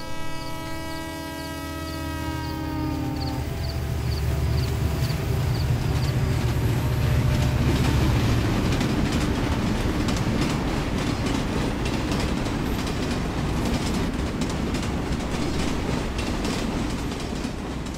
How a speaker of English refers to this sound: Welcome on board. The train at 12:05 a.m.